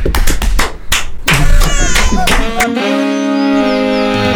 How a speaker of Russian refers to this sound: Хлопает о!